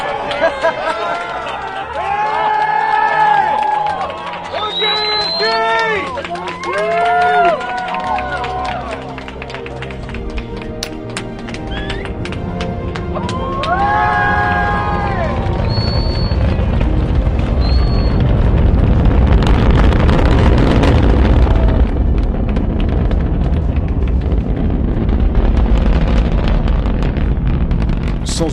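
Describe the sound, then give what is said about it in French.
An Ariane 5 rocket launch, its Vulcain engine lifting the 780-tonne, 55-metre rocket: a deep, rumbling roar swells and holds loud and steady while spectators applaud, following earlier stretches of people talking and calling out a countdown. “le bruit qui fait un peu trembler le corps sous les applaudissements des spectateurs”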